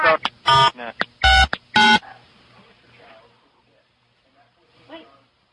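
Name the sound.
telephone keypad dialing tones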